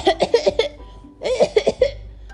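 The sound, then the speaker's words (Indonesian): Strained, choking coughs of a little ostrich choking on jelly come in two quick bursts of several hacks each, separated by a short pause. They are fairly loud, with a voiced, acted-out quality. “Aduh, burung unta kecil tersedak agar-agar.”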